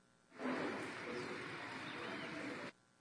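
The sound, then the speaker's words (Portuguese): A steady, soft hiss of light, gentle rain falling continuously for a couple of seconds at a small farm in Pinhal, even in loudness, with no voices. “É, uma chuva leve, chuvinha mansa lá do né?”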